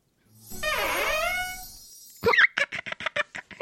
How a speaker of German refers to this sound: Aber Moment, so hört sich das an, wenn wir den Adventskalender aufmachen.